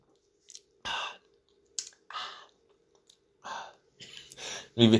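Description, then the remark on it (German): A voice imitates the satisfied exhale after a drink: several short, breathy "ahh" sighs in a row, with small mouth clicks between them and a voiced tone at the end. “Warum macht man das Menschen am Trinken?”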